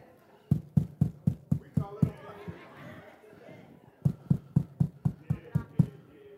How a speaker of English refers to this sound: I hear some knocking. You hear that? Listen, y'all.